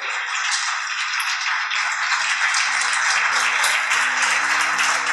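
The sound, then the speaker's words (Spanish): A church audience claps for God after a prayer, a dense, continuous wash of applause, with soft sustained organ or keyboard tones underneath joining partway through. “Dale una ofrenda de palmas a papá este día.”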